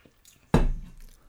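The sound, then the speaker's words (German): A sip of water: faint wet mouth sounds, then one sudden full gulp that fades away over the next half second. Nobody speaks. “Nehmen wir kurz einen Schluck Wasser.”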